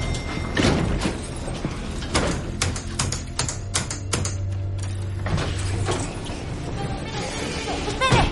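An elevator door slides and shuts as someone enters the elevator, with a series of sharp mechanical clacks and rattles over a steady low motor hum, ending in a quieter rumble.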